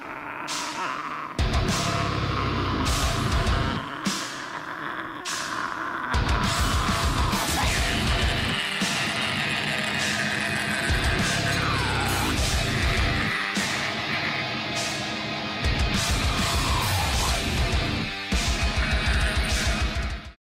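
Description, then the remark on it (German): Whisper-screamed vocals, breathy and harsh yet hushed, ride over a loud, dense metal backing of distorted guitars and pounding drums, running continuously with a few brief breaks between phrases. “Man kann also Flüstern schreien.”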